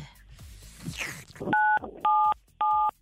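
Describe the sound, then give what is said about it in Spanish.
Three telephone keypad tones dialing the digits 9, 7, 7 for a radio prize game, each a short, loud, steady two-pitch beep with brief gaps between; the last two beeps match, and a muffled rustle precedes them. “9, digita 977.”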